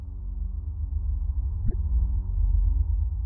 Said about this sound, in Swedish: Tystnaden avbröts plötsligt av ett svagt brummande.